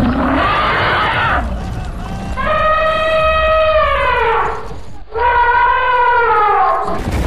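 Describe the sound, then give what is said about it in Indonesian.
An elephant roars: a rough, noisy bellow, then two long, loud trumpeting blasts that waver and slide downward, with no one talking. “Namun jika dialihkan ke arah Ka'bah, gajah hanya bisa mengeluarkan suara menderu.”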